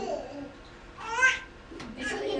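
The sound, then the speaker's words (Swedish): A baby babbles in short, high-pitched bursts, two brief vocal outbursts with a quiet room murmur between them. “Och Khadija symboliserar känslor, hon är berörd av den här bebisen”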